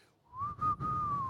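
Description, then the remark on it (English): A lone whistled melody in the style of a Western showdown theme, holding one long clear note that bends slightly up and settles, over a soft low backing. “And so you can hear that Western kind of soundtrack already playing in the background, right? It's like a whistle, right?”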